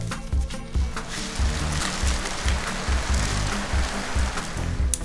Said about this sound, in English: here's my finished rain stick